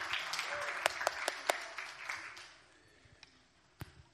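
An audience applauds, a dense wash of clapping with several sharp louder claps standing out, then thinning and fading over the last couple of seconds with a few scattered claps.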